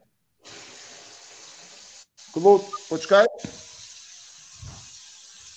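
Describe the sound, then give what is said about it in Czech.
Water gushes steadily from a tap left turned on while the outside water supply was shut off for work, a continuous hiss that cuts out for a moment twice, while a voice briefly speaks over the flow. “O, tak by tu začala teraz tiec voda, lebo som mal pustenú, že či som ju dobre odstavil vonku, dobre.”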